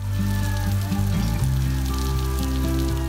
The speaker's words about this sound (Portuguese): A água que banha o centro-oeste do Brasil faz o Pantanal aos poucos renascer das cinzas. Quando caiu a primeira chuva durante as queimadas, dava para ouvir de longe gritos de felicidade.